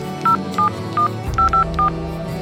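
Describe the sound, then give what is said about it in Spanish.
A telephone number being dialed, the home number from the name tag of Sky, a found pet: six short, evenly paced touch-tone beeps, clear and moderately loud, over a low background hum with no talking. “Vamos a llamar para avisar que estás aquí.”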